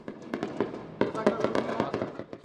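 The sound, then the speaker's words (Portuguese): Rapid bursts of gunfire crack out in an irregular volley, a dozen or so sharp shots in quick succession, some clustered together, echoing; a shootout between rival criminal factions in the Campinho area, north zone of Rio de Janeiro. “Pelo quarto dia seguido, esse é o som que os moradores escutam na região do Campinho, zona norte do Rio de Janeiro.”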